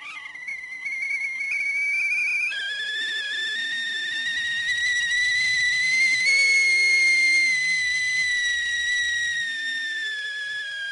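A kettle of boiling water whistles steadily as white steam escapes the spout, a loud, piercing shrill tone that starts after a brief hiss, climbs slightly in pitch and holds for about ten seconds.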